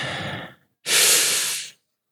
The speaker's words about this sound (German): Zwar geht das ganz einfach und funktioniert mit der Atmung. Also, wir atmen ganz tief ein